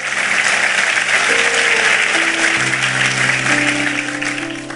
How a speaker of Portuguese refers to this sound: Aplauda ele forte, porque a palavra do Senhor é tremenda. Aleluia.